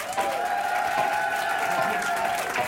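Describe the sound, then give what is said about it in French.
The audience of France Inter's Grand Contrôle cheers and applauds loudly and continuously for Monsieur Leroy, dense clapping mixed with sustained shouts and whoops that hold steady for the whole few seconds. “J'aimerais que l'on fasse un maximum de bruit, s'il vous plaît, pour Monsieur Leroy ici présent.”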